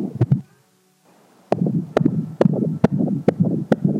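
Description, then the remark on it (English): A fast, steady heartbeat thumps over a muffled whooshing background, pausing briefly near the start before resuming its regular rhythm. No one speaks. “And it all started with a simple heartbeat.”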